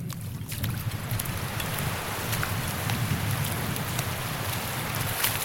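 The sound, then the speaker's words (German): Gentle waves wash against sand at the water's edge in a steady, continuous murmur, with soft splashes and fizzing water scattered throughout and a low rumble underneath. No one speaks. “Schließlich erreichen wir die Wasserkante, dort, wo die Wellen sanft gegen den Sand brannten. Man hört es.”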